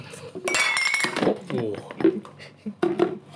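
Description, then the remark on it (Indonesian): Glass clinks and rattles as a cat handles it, several bright ringing taps scattered over a few seconds, with people's voices murmuring underneath. “kucing, bandel banget kucing. Ya lanjut. Megang ya, gelas.”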